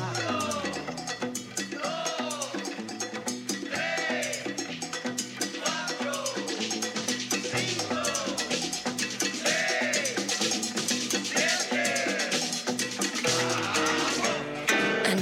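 A lively mambo intro plays loud and full, with a cowbell clanking a steady beat under bright horn-like melodies and driving Latin percussion throughout.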